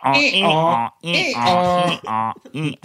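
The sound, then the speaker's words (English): Someone imitates donkey-like creaking brays with their voice: a string of loud, strained bursts with wavering, sliding pitch, the first two long and the last ones shorter. “those are the noise, or those are the noises I make. Maybe so. It, oh. it, you're like a donkey.”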